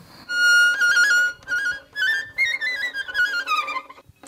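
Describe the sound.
An instrument plays bright, warbling trills that imitate birds chirping, fluttering quickly up and down in pitch for about four seconds, fairly loud, with no talking.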